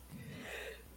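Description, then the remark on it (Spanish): A single sneeze, a breathy intake building to a sharp burst of air at the end, quiet overall with no talking. “salud.”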